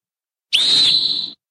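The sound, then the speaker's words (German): A referee's pea whistle of a kind used at a World Cup gives one short, shrill, loud blast with a slight rattling trill in the tone. It lasts under a second, with nothing else around it. “Wir hören jetzt einfach mal kurz einen Pfiff einer Pfeife, die noch eine Trillerpfeife war, bei einer WM eingesetzt.”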